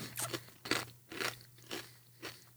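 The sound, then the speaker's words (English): Crisp, crackly crunching of a potato chip seasoned with turmeric and cumin being chewed, about five bites in a steady rhythm roughly every half second, over a faint low hum with no talking. “And it's like eating a chip covered with cumin and sugar.”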